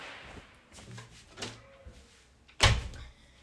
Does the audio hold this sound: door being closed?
yes